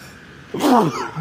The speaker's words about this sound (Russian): Все-таки чихнул.